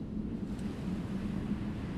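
A steady roar of sea surf breaking on a shore washes along without pause, a dense rushing wash of waves with some wind buffeting mixed in, and no voices.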